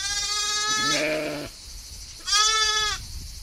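Two clear, fairly loud bleats from a sheep: a long wavering call that trails off into a lower tone, then a short pause and a second, briefer bleat. No one speaks.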